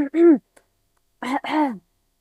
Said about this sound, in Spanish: y ya no podía cantar y como que me carraspeaba la garganta y yo, ¿qué pasa?